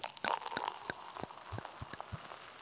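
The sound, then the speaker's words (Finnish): Champagne pours quietly into shallow American-style coupe glasses, a brief gurgling splash followed by scattered soft fizzing pops and drips. No one speaks. “Mä oon ostanut hiljattain tämmöiset niin amerikkalaiset laakeat lasit, joihin tämä kaatuu aika kauniisti täällä.”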